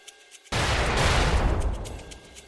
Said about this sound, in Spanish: Y de pronto se escuchó una especie de explosión de fuegos artificiales. ¿Cómo te imaginas que sonó?